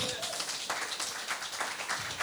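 An audience claps steadily throughout, a dense, continuous patter of many hands with no pauses, holding an even loudness for the whole couple of seconds.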